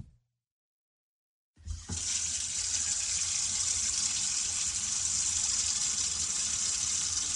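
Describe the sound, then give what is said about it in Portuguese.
After a brief silence, a bathroom tap is turned on and water runs steadily into a sink, a continuous hissing splash that holds at an even level to the end. “Você abre a torneira do banheiro.”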